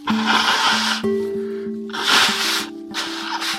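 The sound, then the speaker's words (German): Three loud, breathy bursts of someone blowing their nose into a tissue, each a rough honking rush of air, with a soft melodic tune playing steadily underneath. “Zum Glück gibt's ja Taschentücher. Also raus damit.”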